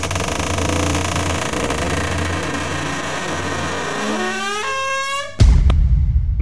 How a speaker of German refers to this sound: Ah, wie ich diese knarzende Tür liebe. Ja. da hilft nur WD40.